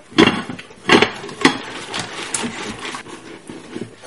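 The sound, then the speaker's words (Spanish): A pan of clams in sauce is shaken back and forth while cooking so the sauce works into the clams and they open, producing rattling clatters in uneven rhythmic bursts that soften toward the end, with no voices. “están escuchando una especie de vaivén.”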